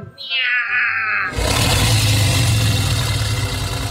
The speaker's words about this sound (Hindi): उसकी जोरदार दहाड़ जैसी